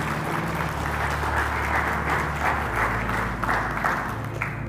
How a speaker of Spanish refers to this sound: Un aplauso a nuestro pastor